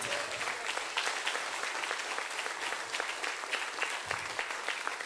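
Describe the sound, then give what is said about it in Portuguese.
A crowd applauds God steadily, a dense wash of many hands clapping at once with no pauses, holding an even, fairly loud level throughout without voices standing out. “Aplaude o teu Deus, aplaude.”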